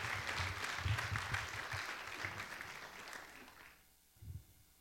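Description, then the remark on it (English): An audience gives a round of applause to thank a woman for the hard work she puts in every year, clapping in a dense, steady wash for nearly four seconds, then tapering off quickly, followed by a single soft low thump. “And so uh, I wanted to give her uh, a thank you first of all, and a round of applause from all of us for all the hard work that she puts in um, to one every year, and then.”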